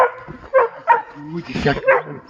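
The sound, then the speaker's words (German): A dog barks in a high-pitched, insistent series of about five sharp yaps in quick succession, fairly loud, with a strained, frustrated edge. “Ja, ähm, das das Bellen ist jetzt tatsächlich meiner. Der, das hohe Bellen ist ein frustriertes, wieso spielt der andere nicht mit mir?”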